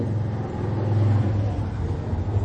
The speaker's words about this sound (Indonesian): Sebentar ada motor sebentar ya.